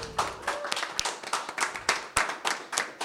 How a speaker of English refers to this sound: All right. So that's it for all of your contestants tonight. Give them a big round of applause, everybody.